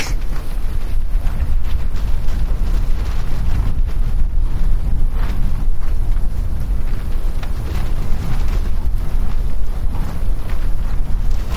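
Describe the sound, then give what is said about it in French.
A strong wind roars steadily and loudly, buffeting the microphone with deep rumbling gusts that never let up, with no voices present. “Ah, quand il souffle très fort, c'est le vent, ça peut être angoissant.”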